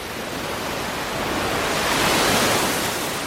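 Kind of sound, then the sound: nature, ocean waves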